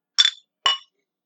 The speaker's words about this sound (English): Make sure we touch bottoms of our glasses.